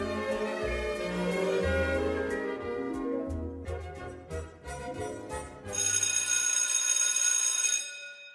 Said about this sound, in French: je me suis rappelé que petit, ce que j'attendais le plus, bah, c'était la sonnerie qui me libérait des bancs de l'enfance.